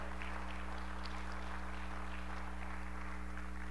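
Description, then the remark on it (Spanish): An audience at a church service claps for the Lord in a steady, dense patter of applause that holds evenly throughout, over a constant low electrical hum, with no voices standing out. “Aplaude al Señor con más fuerza.”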